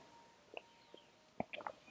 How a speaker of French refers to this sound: Un autre petit gorgée de café.